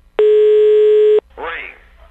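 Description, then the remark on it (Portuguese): A telephone call is being placed: a single steady ringing tone sounds loudly for about a second, then cuts off and a brief muffled voice-like sound follows. “Vamos ligar mais uma coisinha? Ai, liga, liga, vai, liga.”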